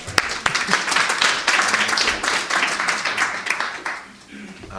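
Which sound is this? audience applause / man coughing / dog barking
audience applause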